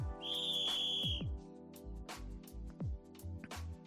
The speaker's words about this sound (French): Attention les amis, bouchez-vous les oreilles, je mets le générique carton rouge. Êtes prêts Est-ce qu'il y a un gros coup de sifflet dedans dans le générique Éloignez les animaux. C'est bon Ok, c'est parti, carton rouge.